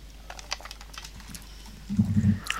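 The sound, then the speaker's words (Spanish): Ice cubes clink lightly in a glass, several brief, scattered taps, followed by a low, muffled shuffle near the end. No one speaks. “Perdonad si se me escuchan los hielitos, pero.”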